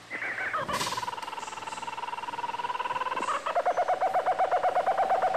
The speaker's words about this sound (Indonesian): Monyet. Iya, benar.